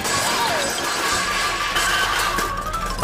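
A puppy climbs into a jug and knocks it over with a loud crash, followed by a dense clattering rumble that continues for a few seconds without pause. No voices are heard.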